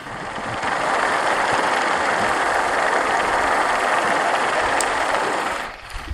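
A steady, dense underwater drone of boat and ship engines recorded by hydrophone at sea: two fishing boats, a fast boat passing, and a large cargo ship about two miles away. A continuous mechanical rumble with faint rhythmic ticking holds level for several seconds before fading out at the end. No voices.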